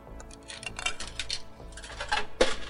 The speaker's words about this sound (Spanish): se instalaron unas máquinas en todas las ciudades y tú, al meter una de estas monedas, puedes comprobar si es verdad o no el hecho que quieras.